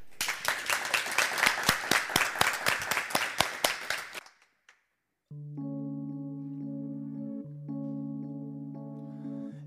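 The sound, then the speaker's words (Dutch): Loud applause from a Dutch TV studio audience, called for by the host, with a slightly rhythmic clapping pulse for about four seconds, then a brief silence before sustained, steady musical chords begin. “Dus ik zou zeggen, lieve mensen thuis, maar ook hier mag ik een heel hard applaus”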